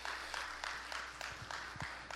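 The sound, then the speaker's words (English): A crowd claps together for the Lord in a steady, fairly quick rhythm, the sharp hand claps blending into a continuous patter of applause with no voices over it. “Give the Lord a great big hand clap in the house.”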